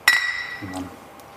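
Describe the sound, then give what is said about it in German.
Two glasses touch in a toast in a single bright clink whose high ring lingers and fades over a second, fairly loud, with a brief low voice murmuring just after. “Nein, äh, äh also gut, Prost.”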